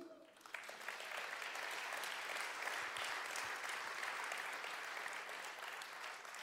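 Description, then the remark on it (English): Sustained audience applause for a couple celebrating their 50th wedding anniversary, a dense steady wash of many hands clapping that starts abruptly and stays loud and even for several seconds. “Thank you because you're applauding to our happiness.”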